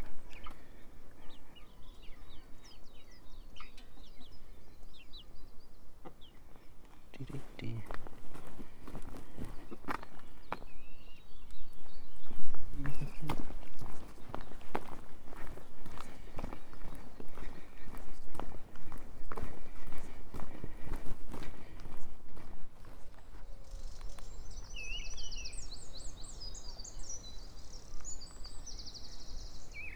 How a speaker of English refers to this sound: walking through a field with five sheep in it. Two of them very young lambs.